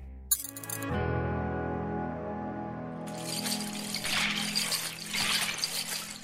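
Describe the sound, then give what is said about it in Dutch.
Many small hard pieces of elk teeth on a dancing costume rattle and clatter together in a dense, continuous shaking, fairly loud, starting after a steady droning tone that keeps sounding underneath. “wat je hoort zijn eigenlijk tanden van elanden...”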